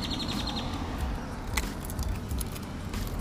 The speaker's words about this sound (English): just love to hear the birds chirping. It's lovely. Just lovely.